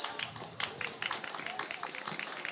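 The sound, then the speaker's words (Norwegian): A crowd claps in a steady, dense patter of overlapping hand claps, moderately quiet, lasting a few seconds without a clear break. “Applaus.”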